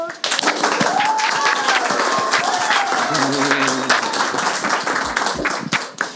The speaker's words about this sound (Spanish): este es nuestro primer capítulo con público, así en vivo e indirecto y por primera vez sin mascarilla, al fin podremos hablar libremente. Tenemos público, así que aplausos.